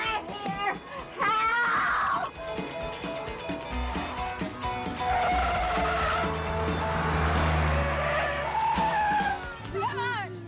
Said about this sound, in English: This was really scary. That kid's driving the car and it's hooked up to a thing, but it there really was a guy on the floor driving it.